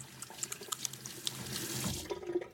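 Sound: tap water running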